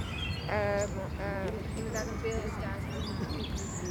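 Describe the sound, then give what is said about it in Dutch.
Several birds chirp and tweet in quick, overlapping bursts over a steady outdoor background hum. “het geluid van vogels, van wind in de bomen, van pratende mensen, van een watertje op de achtergrond en weinig verkeersgeluiden.”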